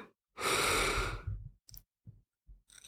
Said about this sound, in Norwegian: Så kan du trekke inn pusten gjennom nesa